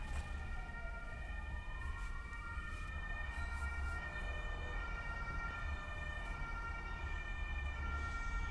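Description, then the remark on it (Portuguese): An ambulance siren wails steadily over a constant rumble of city traffic in Lisbon around 17:50, its rising and falling tone sweeping past without fading out. “E lá vem outra ambulância, vamos deixá-la passar.”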